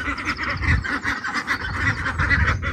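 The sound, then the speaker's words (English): Several ducklings in a chicken run quack continuously, their nasal calls overlapping in a busy, rhythmic chatter that fills the whole stretch without pause. “and you can no doubt hear the ducks.”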